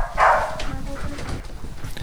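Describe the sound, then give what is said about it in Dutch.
A family dog about to be taken out for a walk lets out a short, high yelping bark, then softer whimpers and restless scuffling noises continue for a couple of seconds. “zullen wij de hond even uitlaten?”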